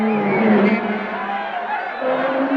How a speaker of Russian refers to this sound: Из домов, магазинов, машин все выходят и начинают кричать. Кажется, я тоже начинаю их слышать аж из бункера.